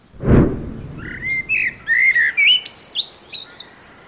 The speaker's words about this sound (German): Das war die Amsel.